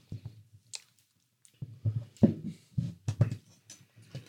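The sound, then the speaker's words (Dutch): Wet chewing of a bite of food, taken before a sip of drink while the mouth is still full, with irregular squishy bursts and soft smacking over several seconds and brief pauses between chews; no talking. “Nou, neemt eerst een happie en als je je mond nog vol hebt, neem je een slokje zo.”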